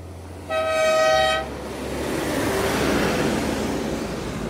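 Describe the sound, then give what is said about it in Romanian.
A gas delivery truck blasts its horn once, a loud, steady honk lasting about a second, followed by the low rumble of its engine, as it drives into a village in Valea Călugărițelor, Madeira, honking to alert residents to buy gas. “Uite. Claxonează pentru că”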